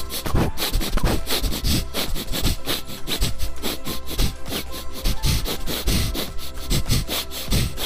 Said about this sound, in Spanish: Cuando, cuando olfateo hago un, hago un sonido chistoso.